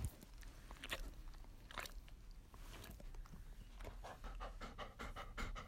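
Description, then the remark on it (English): A dog pants rapidly and steadily, with quick breathy huffs repeating throughout and a few soft mouth clicks mixed in. “you want to say hi”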